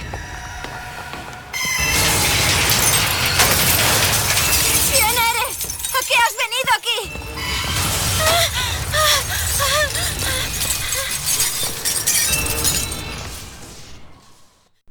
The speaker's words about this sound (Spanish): Bueno, ese sonido tan estridente pertenece a Songbird, un, águila gigante mecanizada que sirve de, protección a Elizabeth y que está programada para atacar a cualquiera que se entrometa entre ellos.